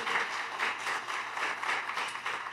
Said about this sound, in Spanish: Porque, un aplauso para el Espíritu Santo. Un aplauso para el Espíritu Santo.